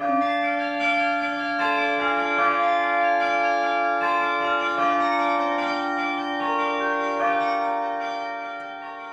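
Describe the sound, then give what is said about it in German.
Carillon bells ring out a slow melody, each struck note overlapping the long sustained hum of earlier tones, steady and fairly loud with no voices. “dass die Glocken spielen.”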